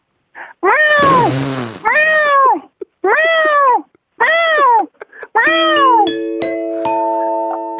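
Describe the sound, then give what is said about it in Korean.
A person imitates a mother cat calling for her lost kittens: five loud, drawn-out, plaintive meows, with a short noisy burst early on and steady chime-like tones entering at the end. “처음에 울음소리에서 터졌어요. 왜냐하면 진짜 고양이가 그 새끼를 찾는 그런 마음이 보였어요.”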